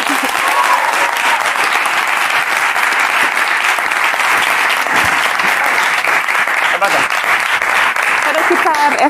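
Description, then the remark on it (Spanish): A crowd applauds a guest invited onto the stage, steadily for several seconds, a dense, even wash of clapping at constant loudness, with faint voices and a few whoops mixed in. “Ok, un aplauso para”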